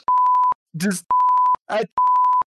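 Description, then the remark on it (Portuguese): Three loud, steady censorship bleeps, each lasting about half a second, alternate with short clipped fragments of a voice, as if someone's words are being bleeped out. “Enche de bip e vai parecer que você falou a coisa mais horrível do mundo.”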